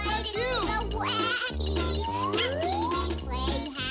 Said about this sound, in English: Something a lot of people don't know about Pee Wee's Playhouse. The theme song you're hearing right now